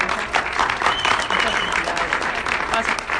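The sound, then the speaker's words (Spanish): A crowd applauds steadily for a few seconds for a woman leader recognized with her new pearl rank. It is a dense wash of hand claps at an even, sustained loudness with no voice standing out above it. “Oigan, yo quiero, quiero reconocer a esta gran mujer y líder porque ayer en, el webinar de, de, Latinoamérica, no, el de México, no fue el de México, eh, la reconocieron con su nuevo rango de perla, así que vamos a darle por favor un fuerte aplauso.”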